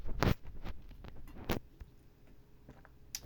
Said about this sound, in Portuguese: Eu odeio esse som que dá quando eu tomo água, mas eu nunca sei o quão longe ir do microfone.